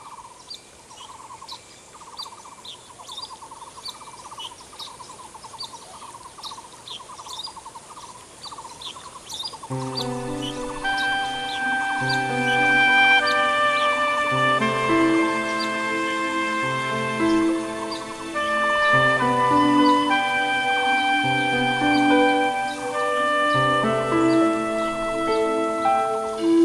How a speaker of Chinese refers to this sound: 哇，听到这个虫鸣鸟叫啊，再加上呢潺潺的温泉水声，相信很多听众朋友呢会觉得哇，现在一切烦恼都可以抛开了哦。